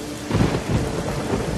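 Steady, dense rain hisses throughout while low, rolling thunder rumbles swell and fade beneath it in a couple of heavy pulses. No voices are present.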